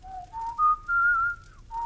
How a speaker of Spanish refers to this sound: Sí, sí y sí, volvió a decir el diablo, y se llenó de aire para silbar un largo rato, como hacía siempre que se sentía optimista.